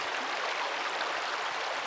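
A steady rush of flowing stream water, a continuous bright babble that holds even in level for the whole moment, with no voices or other sounds.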